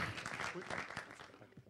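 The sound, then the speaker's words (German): A church audience claps steadily for a visiting couple, a dense, even wash of many hands clapping at moderate loudness, with no voices standing out. “In dem Sinn, lasst uns ihnen mal nochmal einen Applaus geben.”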